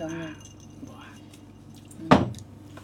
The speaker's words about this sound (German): Diese Eiswürfel da drin, die behindern einen nur.